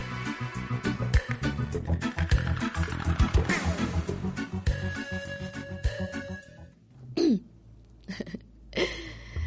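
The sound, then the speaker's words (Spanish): A dense burst of music gives way to a couple of harsh throat-clearing coughs, separated by a short pause, with no talking over them. “me dio una tos terrible.”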